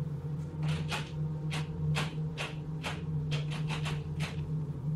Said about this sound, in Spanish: Sonó entonces la puerta. Alguien estaba intentando abrirla. Me asusté mucho, aunque recordé que justo esta noche por impulso había decidido poner el seguro.